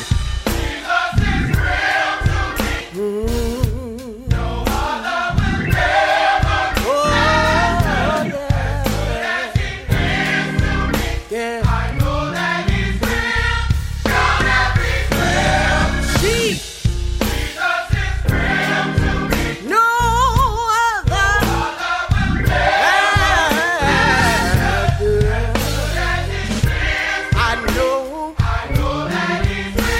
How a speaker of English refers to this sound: Come on, let's clap our hands and lift our voices. Come on, choir, tell him. Sing it for me now.